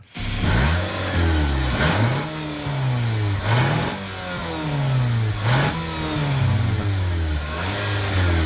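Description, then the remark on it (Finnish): A car engine runs loud, its low hum rising and falling in repeated rev cycles with brief bursts between, a steady continuous drone with no talking. “Aika kiva tasainen käynti. Aika Osta, kiva tasainen käynti. Ostaisitko tämän auto? No äänen perusteella joo.”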